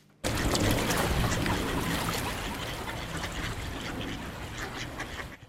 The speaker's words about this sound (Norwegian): Endene i Akerselven kvakker.